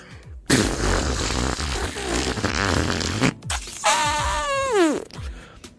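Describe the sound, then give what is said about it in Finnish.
A voice imitates a long, loud, sputtering fart, blowing a raspy buzzing noise for several seconds and ending with a rising, wavering squeal, with no words spoken. “Päästää aivan valtavan pierun, ja sen jälkeen kääntyy vaan ympäri ja jatkaa takas ovesta ulos.”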